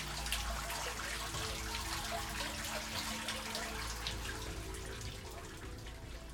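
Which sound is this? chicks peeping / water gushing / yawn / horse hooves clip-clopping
water gushing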